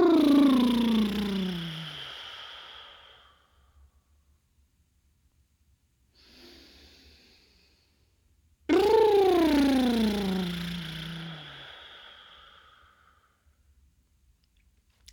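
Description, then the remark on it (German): Two long, loud exhaling breaths, each a deep voiced sigh that slides downward in pitch and trails off, with a faint, short breath in between them, made as a breathing exercise of breathing in deeply and exhaling longer, deeper and with sound. “Du atmest tief ein und wichtig ist, dass du dann länger, tiefer, breiter und mit Geräusch ausatmest”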